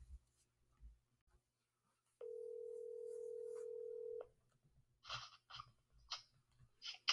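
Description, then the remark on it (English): A single steady telephone ringing tone hums for about two seconds over a quiet line before a phone call with a co-founder of the Coalition to Hold SAU Accountable, then gives way to a few soft clicks and rustling noises. “But for now, here's part of my phone call earlier with”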